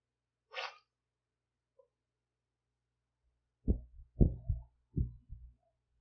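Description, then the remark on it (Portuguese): A sharp, breathy intake of air, like a gasp before a sneeze, then a pause and a few low, muffled throaty bursts where the sneeze never quite comes out. “Achei que eu ia espirrar, mas não espirrei.”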